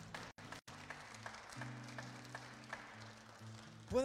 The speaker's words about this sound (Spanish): Démosle un aplauso al Señor en esta tarde.